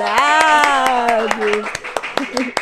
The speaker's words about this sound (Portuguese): Uma salva de palmas para os meus convidados.